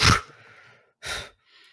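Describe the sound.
A voice imitates the character Waleria's loud snort: a sharp, breathy burst, then a second forceful snort about a second later, trailing into faint breathy hiss. No words are spoken.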